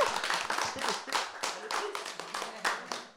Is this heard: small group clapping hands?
yes